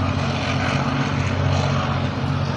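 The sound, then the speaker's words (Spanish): A propeller airplane approaching Aeroparque airport, heard from a park in Palermo beside the airport, giving a steady, loud droning roar with a deep humming engine tone that holds constant throughout, with no voices. “Está pasando otro tren, van dos trenes y está por llegar un avión. Estoy atrás del aeropuerto.”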